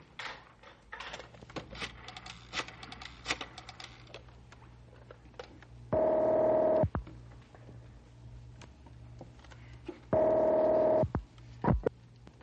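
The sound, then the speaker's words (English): A telephone is dialed with a flurry of sharp clicks to call the fire tower, then rings twice in long buzzing bursts spaced a few seconds apart, fairly loud, with no voices. “I'll call Tom in the fire tower and Find out how badly Andy's boat is burning.”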